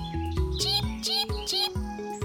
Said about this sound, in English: Akili hears the sound of a little chicken. It must be the third little chicken. Cheep, coming from Little Lion's house.